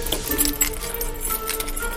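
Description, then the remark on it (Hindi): A bunch of keys jangles and clinks in quick, irregular metallic bursts for about two seconds as they are taken out and used to open the door of a flat. “वो सबको चाचा के घर छोड़ के किसी बहाने से वापस फ्लैट में पहुंचा और चाबियां निकाल के दरवाजा खोला”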